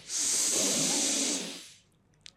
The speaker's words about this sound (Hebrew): וככה. כמה נשימות כאלה כן. רצופות, וממשיכים. וממשיכים. עוד פעם ועוד פעם ועוד פעם, ולתת ככה לגוף, אתם תראו שעם הזמן הוא, הופך להיות יותר ויותר אה, נעים